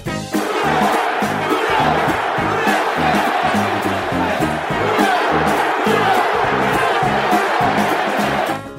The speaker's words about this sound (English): what is that when you jump around and carry on and do the who dat, who dat stuff? Who dat? You know, that's really kind of a, a fan. You know, that's that's our our, our chant.